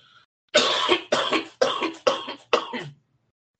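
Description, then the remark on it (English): A person coughs hard five times in a rapid, raspy fit after smoking a blunt, loud, with no talking around it. “See, I didn't hit this blunt and smoke. Hey, look, it's a smokers lounge.”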